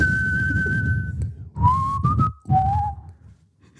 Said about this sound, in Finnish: Niin, mä en kyllä osaa viheltää sun mukana tätä, mutta...